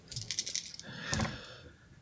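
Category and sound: household object, dice being rolled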